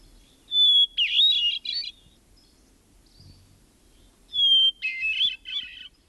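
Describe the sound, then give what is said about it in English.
A hermit thrush sings two phrases, each opening with a long, pure whistled note that breaks into a rapid, fluty, echoing cascade, clear against a quiet background. “Others select the song of the hermit thrush.”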